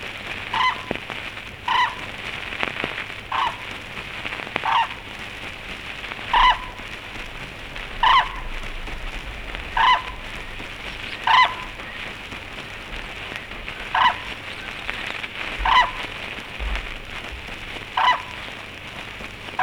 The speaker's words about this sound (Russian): В природе журавли, как правило, откликаются на зов другого. В неволе же одинокий даурский журавль может кричать необычно долго. Вероятно, потому, что не получает ответа.